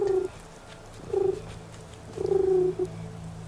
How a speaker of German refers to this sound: Nur ganz sanft büscheln sie ihr Federkleid und gurren.